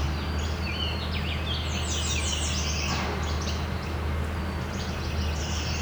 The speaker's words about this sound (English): Yellow warbler. It's now detected.